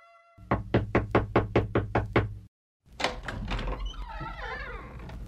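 About nine firm, evenly spaced, loud knocks on a door by two spies, then a short silence followed by a rustling thud and a high, wavering creak.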